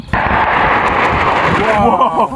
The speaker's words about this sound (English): That's the sound of Ukrainian soldiers firing mobile rocket launchers known as HIMARS. But they aren't on the Ukrainian battlefield. They're on a training range in Germany.